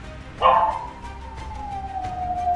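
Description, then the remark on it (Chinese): A pack of wild dogs sounds off: a sharp yelp swells into one long, steady howl that slowly sinks in pitch, with faint, scattered barks rising and falling behind it. “竟然连一群野狗都会怕，我还称自己是哥哥啊！”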